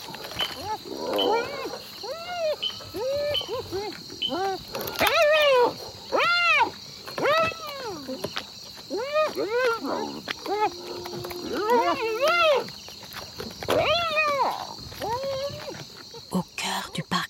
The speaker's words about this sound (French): L'ambiance semble paisible dans le jour naissant, rythmée par le seul son des insectes et des crapauds chanteurs.